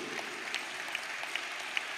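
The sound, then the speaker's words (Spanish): An audience claps for the person who sang, a steady, dense patter of applause, fairly soft, with a few sharper claps standing out. No one speaks over it. “déjate de niñada el que cantó, si cantó bien, dale un aplauso, que eso no le está quitando la gloria a Dios.”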